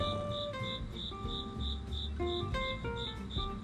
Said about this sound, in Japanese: コオロギが泣いてる